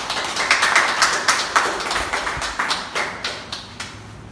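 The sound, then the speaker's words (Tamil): Steady audience applause for the general evaluator and all the evaluators: many overlapping hand claps in a dense, irregular patter that holds at a moderate level for the whole stretch, with no voices on top. “பொது மதிப்பீட்டாளர் அவர்களுக்கும் அனைத்து மதிப்பீட்டாளர்களுக்கும் மற்றும் ஒரு முறை கரகோஷம் செலுத்தும்”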